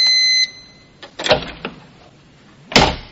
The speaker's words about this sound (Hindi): थोड़ी देर बाद दरवाजे की आवाज आई